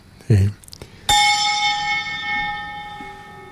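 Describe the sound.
A bell is struck once during Mass as the archbishop sets the chalice on the altar, ringing on with a bright, sustained tone that fades slowly, preceded by a brief murmur of voice and faint background noise.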